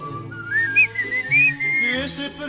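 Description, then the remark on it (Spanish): Someone whistles a lilting melody with sliding, wavering notes, fairly loud, over a low sustained musical accompaniment. “Eh, así, eh, así, no es el chiflido.”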